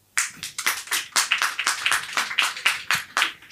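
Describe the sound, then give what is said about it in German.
A live audience claps steadily for a few seconds, a dense run of bright, sharp hand claps with a brisk rhythm and no voices over it, clapping to vote for a song title. “Ihr klatscht einfach bei dem Titel, den ihr am äh, meisten wollt.”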